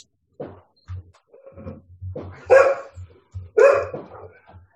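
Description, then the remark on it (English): A pet dog barks two loud, sharp times, separated by a short pause, with softer yips and whines around them, and no one speaks. “My dog's barking.”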